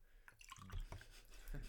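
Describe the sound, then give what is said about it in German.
Water is poured into a glass, a short burst of irregular splashing and trickling that builds slightly toward the end, fairly quiet overall. “Und plätschert's dahin, ey.”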